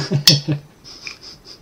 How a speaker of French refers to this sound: Euh, j'ouvre ma canette. Hein. Ah, ok, j'ouvre ma canette alors.